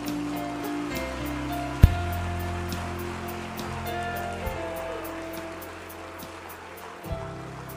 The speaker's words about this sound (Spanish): Dale un aplauso fuerte al Señor.